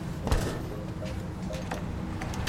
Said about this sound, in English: Why are you knocking?